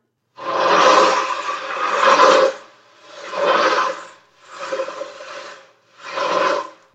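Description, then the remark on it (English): An ocean drum, a cylinder closed on both sides and filled with ball bearings, is tilted back and forth, its ball bearings rolling in four broad, swelling hisses that rise and fade like waves, each separated by a brief pause. “It's a cylinder uh, that is closed on both sides and filled with ball bearings.”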